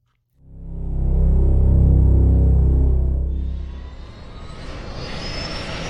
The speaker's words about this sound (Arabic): راحت محركات الهليكوبتر تهدر على حين راح العمال ينقلون متاع الحمله الى داخلها